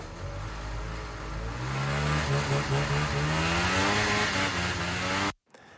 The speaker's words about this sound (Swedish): Vi beklagar. Det var helt enkelt något problem med förgasaren. Vi var som tvungna att stödgasa för att skitskotern inte skulle dö.